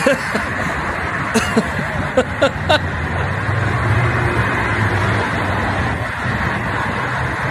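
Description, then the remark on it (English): A steady, dense roar of major interstate highway traffic in Chicago with a deep low rumble, continuous throughout, with a few brief sharp clicks and knocks near the start. “now the guy's running in the middle of major interstate traffic like Frogger”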